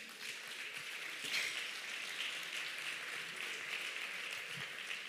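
An audience applauds steadily for several seconds, a dense, even crackle of many hands clapping at once, fairly soft, with no voices heard over it.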